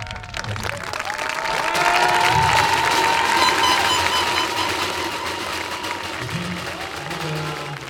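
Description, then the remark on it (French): A crowd at a P2J tournament applauds steadily with scattered cheers and whistles after the volunteers are thanked, a dense, sustained wash of clapping that swells early and stays loud throughout, with faint voices mixed in. “Et puis je compte sur vous pour faire du bruit, comme d'habitude.”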